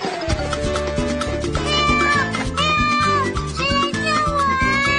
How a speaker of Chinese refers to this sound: 嘿，那听起来像小蜜熊的声音。你怎么了，小蜜熊？